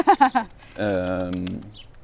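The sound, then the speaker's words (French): Two pigeons cooing while mating: three quick throaty pulses followed by a longer, wavering drawn-out coo, fairly loud with no talking over it. “Et il y a deux pigeons qui copulent.”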